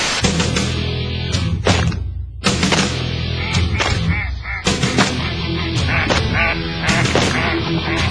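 Loud, dense ducks quacking in rapid overlapping bursts, sounding like a whole flock, with a few brief pauses and sharp thumps mixed in.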